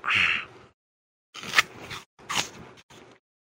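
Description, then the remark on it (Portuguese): A sharp, crisp crunch of biting into a Fuji apple, followed by a pause and then several rougher chewing crunches, fairly loud with no talking. “Olha só, deixa eu ver se vocês conseguem ouvir minha mordida.”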